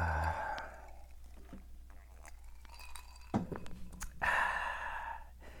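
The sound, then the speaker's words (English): A quiet sip of Hennessy cognac from a glass: a breathy inhale, a faint clink and small mouth sounds, then a long, airy exhale of satisfaction. No talking. “But um, let me take a sip.”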